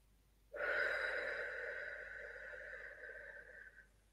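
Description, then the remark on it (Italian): A single long, very deep breath during a guided breathing practice starts abruptly and holds steady for about three seconds before fading out, fairly loud, with a slightly airy, hollow tone and no talking. “Facciamo l'ultimo respiro profondissimo, esalando appare”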